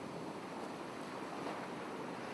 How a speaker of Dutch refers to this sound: In de verte klinkt en weer klinkt de zee.